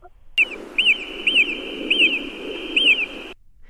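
A marmot from another population calls with a series of five sharp, high-pitched whistles at a steady, slightly uneven pace, clear, over a constant low hiss, with no talking.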